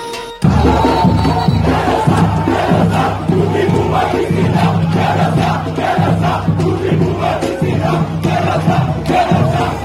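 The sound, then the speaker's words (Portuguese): A dense stadium crowd of Náutico football fans roars in celebration after a goal at the Estádio dos Aflitos in Recife, a loud, sustained wall of cheering and chanting that bursts in abruptly and holds steady for the whole stretch. “Vai parecer um vídeo normal, mas basicamente é a torcida do Náutico comemorando o gol no estádio dos aflitos, quando de repente um casal encontra o amor.”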